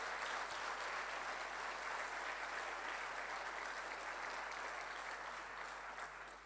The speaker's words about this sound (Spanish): Ahora, dale ese aplauso al Señor si tenés ganas de hacerlo.